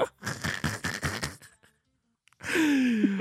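A run of about six quick, breathy straining grunts, close and rhythmic, then a brief silence before a long, loud, strained groan with a wavering, falling pitch.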